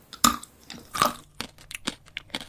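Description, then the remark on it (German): Two sharp bites into a chocolate bar, each with a crisp snap, followed by quieter crunchy chewing and small clicking bits of mastication; no one speaks. “Sie klingen nämlich beim Abbeißen genau gleich.”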